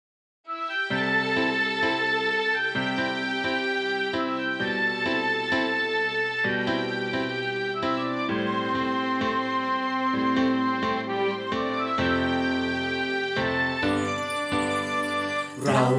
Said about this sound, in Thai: งั้นไปฟังละครเพลงที่เกี่ยวกับกวางกันเลยดีกว่า ได้เลยครับ วันนี้จะมาในตอนที่ชื่อว่า โลกแห่งความฝัน เชิญฟังได้เลยครับ